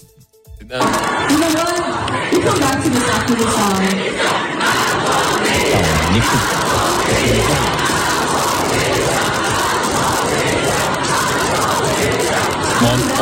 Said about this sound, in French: mais pile à ce moment-là, un un bruissement monte de la foule. Et qu'est-ce que le public se met à crier Macron démission.